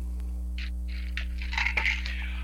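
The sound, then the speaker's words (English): Pills rattle and clatter inside a container in a few quick shaking bursts, moderately loud, over a steady low electrical hum. “Uh, no, I'm just sick as a dog, and I've worked every day for the last three weeks. So it's that whole ju- juggling the pills”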